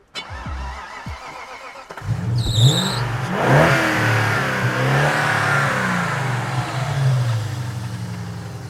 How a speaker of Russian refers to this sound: Да, здесь контрактный, такой же, как и был, V8 M60B40 на 286 лошадиных сил, из которых осталось без понятия сколько